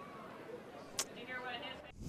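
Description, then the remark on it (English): Faint voices chatter on a crowd microphone, coming from the camera bay at Spratt Stadium during the Missouri Western versus Fort Hays State game, over a steady open-air background hiss, with a sharp click partway through; the talk is low and indistinct. “I'm going to shut that off for right now because I can hear some some banter.”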